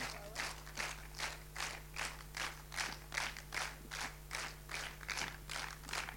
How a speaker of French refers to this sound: Euh, évidemment, je partage vos applaudissements, mes applaudissements.